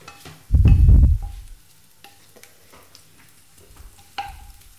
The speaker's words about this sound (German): Okay, Hühnerbrühe ist aufgesetzt, Zwiebeln fangen an zu, zu braten.